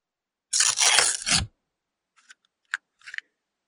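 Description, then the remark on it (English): A loud, crackly burst of paper tearing and crunching for about a second as a person eats paper, followed by a few quieter crinkles and clicks like chewing on paper, with no talking. “I think you should get fun. off some hot takes while you're eating the paper.”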